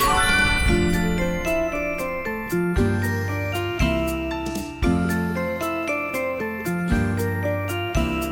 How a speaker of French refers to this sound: on écoute encore des chants de Noël évidemment, on est en plein dedans